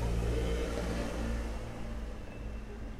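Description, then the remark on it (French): A car rumbles along a street in Paris, its low engine drone steady and fairly loud before easing off slightly toward the end, with no voices present. “Vous excuserez les buts de voiture et le bruit des pas de ces bobos parisiens dont je fais partie à présent, je crois.”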